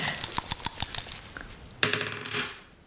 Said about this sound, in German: Ich habe heute einen Würfel mitgebracht. Mhm. Ich habe äh, sechs Fragen mir ausgedacht und drei davon würfel ich jetzt. Zu würfeln. Okay. Ja. Ich schüttle jetzt mal ganz fest.